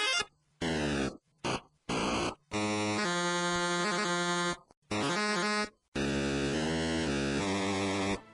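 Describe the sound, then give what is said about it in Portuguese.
All the sound effects of the Pitfall video game, played in a 14-second run: a string of harsh, buzzy electronic tones in short bursts and longer held notes, some sliding in pitch, separated by brief silences, with no talking. “Nós vamos botar todos os sons agora, que são só 14 segundos, então é prepare é, Então, vai ficar o link no Porsche, então vamos tocar ele agora.”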